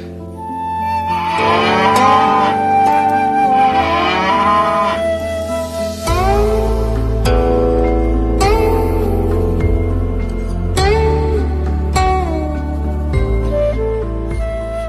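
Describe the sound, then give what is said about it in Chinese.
An old cow moos several times in long, drawn-out, low calls whose pitch wavers and slides, loud and continuous across the whole stretch with no one speaking. “一头老牛走过来，看了看泥塘”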